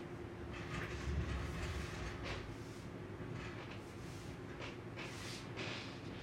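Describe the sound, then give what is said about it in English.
Electric fans run with a steady, continuous whirring hum and a low droning rumble, even in level throughout, with no voices. “the fans gotta go for sure.”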